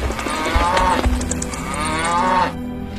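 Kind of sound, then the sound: animal, cattle mooing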